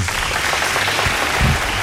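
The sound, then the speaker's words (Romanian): Steady applause from a crowd, a dense wash of many hands clapping at an even loudness throughout, with no voices rising above it. “Bravo încă o dată, aplauze încă o dată.”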